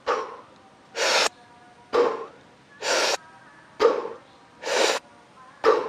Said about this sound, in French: Donc Première, méthode, la respiration de récupération, super simple. Tu vas faire une respiration rapide par la bouche et tu vas faire une passive Excel, une expiration passive.